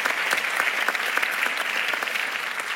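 An audience applauds steadily, a dense wash of many hands clapping at an even, sustained loudness with no voices over it.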